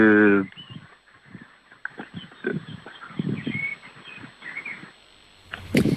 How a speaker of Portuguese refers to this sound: Eu estava a gostar da música de fundo, não sei se vocês deram conta, estava a ouvir passarinhos, é maravilha. Estava a ouvir passarinhos,